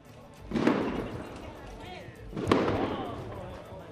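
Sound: fireworks going off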